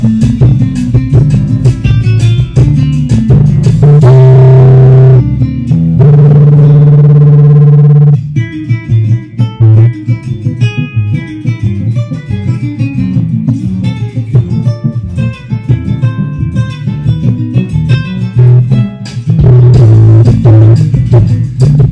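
Loud, continuous music plays through a small speaker standing on a shelf cluttered with mugs and spoons, its sound buzzy and distorted as the shelf rattles along with it. There is no talking over it.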